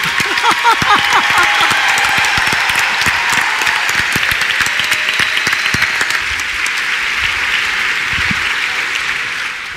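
An audience applauds a panel steadily, dense overlapping claps forming a loud, even roar that holds for the whole stretch and thins slightly toward the end, with no one speaking.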